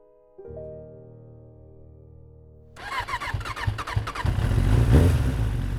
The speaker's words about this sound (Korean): 바이크의 시동을 조심스럽게 켜본다.